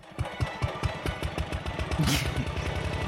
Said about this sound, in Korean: 아, 김 작가 그 경운기 준비됐나? 저쯤 그 느티나무 아래서부터 쭉 들어오는 그림 좋겠는데.